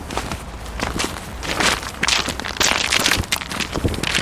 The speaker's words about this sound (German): Also ich muss gerade an Schritte denken. Und Mhm. Der Sound, der dabei entsteht.